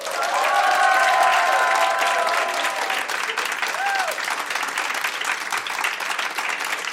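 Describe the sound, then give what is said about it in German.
A busy crowd hums steadily throughout inside a bookstore in the Europa Passage shopping arcade in central Hamburg, Germany: many overlapping voices, scattered clattering and shuffling, with a few clearer voices rising early on, filling the space at a fairly loud, constant level. “Und da ist einiges los, man hört es.”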